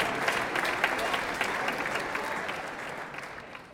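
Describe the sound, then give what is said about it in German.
Steady audience applause, a dense crackle of many hands clapping at fairly even loudness that tapers off slightly toward the end, with no clear voices on top. “Dann erstmal Applaus, Applaus.”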